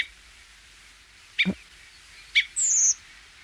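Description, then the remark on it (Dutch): A migrating redwing gives a thin, drawn-out high 'tseep' call, preceded by two short sharp chips, clear against a quiet outdoor background. “Ja, nou vooral dat drie geluid ehm, dat is de Koperwiek.”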